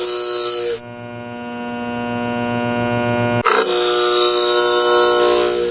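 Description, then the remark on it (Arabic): A DUV chip lithography machine, of the kind China has, making ordinary 14 to 10 nanometre chips, humming loudly and steadily, a dense buzzing drone of layered tones that abruptly shifts pitch and texture twice, with no voices present. “هذا صوت ماكينة تصنيع رقائق إلكترونية عادية من 14 نانومتر حتى 10 نانومتر اسمها دي يو في ديب هذه لدى الصين ومكتفية من تصنيع رقائقها جزئيا وهي الآن نحو اكتفاء كامل.”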